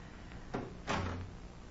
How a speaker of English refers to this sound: Follow me, gentlemen. Out this way and shut the doors behind us.